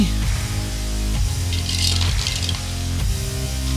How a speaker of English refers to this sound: the dice tower just makes it sound more intimidating.